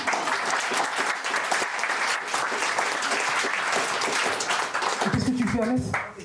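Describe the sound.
A room full of people claps steadily and loudly for several seconds, a dense wash of applause that carries throughout, with a voice briefly breaking in near the end as the clapping starts to fade.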